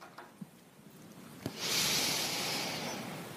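A deep breath: after a couple of faint clicks, a soft airy rush swells and holds steadily for nearly two seconds, with no talking.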